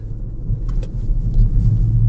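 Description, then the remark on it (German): Steady, deep road rumble from inside a moving car, a dense low drone that holds for the whole stretch, with a couple of faint brief clicks early on and no voices. “Ich bin der Autor und sitze ja auch im Auto.”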